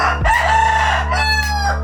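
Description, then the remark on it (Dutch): A rooster crows once, loud, a drawn-out cock-a-doodle-doo with a rising start and a long strained tail, with no voices alongside it. “Want ik heb het met je over de kip. Het ei en vooral de haan.”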